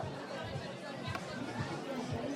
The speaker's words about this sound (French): Bah, écoutez, ici dans ce bar euh, qui est de Avenue Kléber, il y a une majorité euh, de supporters euh, marocains.